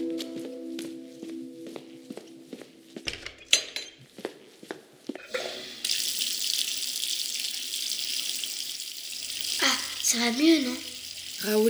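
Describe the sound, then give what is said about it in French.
A few sharp clicks and knocks, then a tap opens and cold water gushes steadily into a sink as a boy cools a crab under it, a loud splashing hiss that continues to the end. “Au contact de l'eau froide, le crabe semble être tout à fait rétabli.”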